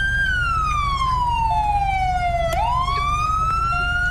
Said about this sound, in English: Can you turn your sirens off, dude?